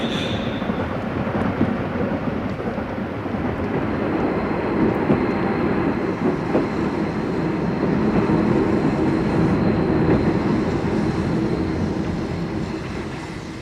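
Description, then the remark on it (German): A scheduled FD express train to Paris pulls into a station platform, a heavy steady rumble: a dense low roar with metallic squeal and hiss on top, sustained for the whole stretch and easing slightly at the end as it slows. “Es hat Einfahrt der fahrplanmäßige FD-Zug nach Paris.”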